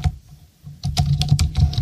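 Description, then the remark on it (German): Typing on a vintage Apple keyboard: after a short quiet moment, a quick burst of clacky keystrokes sounds fairly loud over a low background hum. “Ich weiß nicht, diese Zeit, äh, ich, bei dieser Tastatur denke ich nicht, oh, früher war alles besser, weil ich äh, zu der Zeit noch kein Mac-Benutzer war.”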